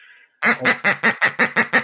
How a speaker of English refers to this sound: did you hear that? I did. Did you hear that? Okay, that's the angry Corona duck, and it will come out if if it feels like that the conversation's getting mugged by that topic.